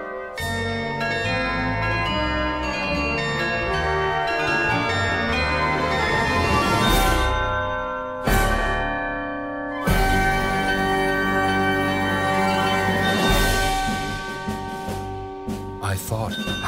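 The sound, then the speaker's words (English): Carillon bells ring out in a continuous, layered melody, with overlapping tones lingering and several heavier strikes landing partway through. The bells sound loud throughout. “How like these chimes are the poet's airy rhymes.”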